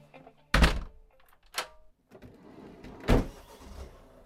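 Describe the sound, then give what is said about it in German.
A house's front door thuds shut, followed by a sharper knock of the latch or lock and another heavy thump a moment later, as it is locked for the last time before leaving; no voices. “Jetzt fängt was ganz Neues an und ich habe gerade nicht nur die Haustür das letzte Mal abgeschlossen, sondern auch erstmal ein Kapitel in meinem Leben.”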